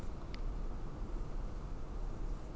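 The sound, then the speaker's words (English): Steady, heavy rain falls outside, a dense, constant hiss with a low rumble beneath it, even in loudness throughout and with no voices. “As interestingly, this rain outside is really coming down.”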